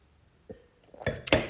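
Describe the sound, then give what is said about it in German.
Glasses clink together in a toast: a soft tap, then two brighter, sharper clinks close together near the end, with no talking. “Auf den Promi-Doc. Aufrichtiger Mann. Prost.”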